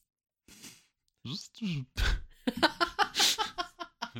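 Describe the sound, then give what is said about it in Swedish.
Breathy, whistling exhalations made by a voice, a few drawn-out wheezy puffs with rising tones, followed by a quick run of rhythmic laughing bursts, moderately loud. “Härliga visselljud.”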